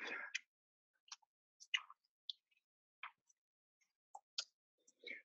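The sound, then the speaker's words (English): A deck of tarot cards being shuffled, with soft irregular snaps, slides and light clicks scattered across a few seconds amid otherwise quiet surroundings. “So let me uh, finish my shuffling here, and okay.”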